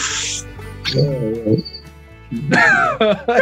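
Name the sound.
cricket chirping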